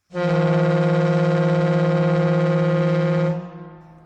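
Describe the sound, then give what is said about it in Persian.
The horn of a Khavar truck blares in one long, steady blast for about three seconds as the driver starts honking, loud, then cuts off with a brief fading tail. No one speaks. “شروع می کند به بوغ زدن. بوغ ماتیکی که صدای زیری دارد و مال خانم های رهگذر کوچه هاست”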